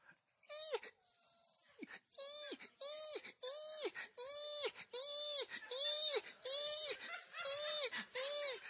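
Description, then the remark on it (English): A voice imitates the squeaking cry for help of a mouse caught in a trap at night: about a dozen shrill, whiny squeaks repeated in a quick, steady rhythm, fairly loud. “And all of a sudden, that night, we heard a squeaking cry for help.”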